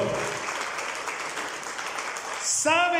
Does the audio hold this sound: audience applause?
yes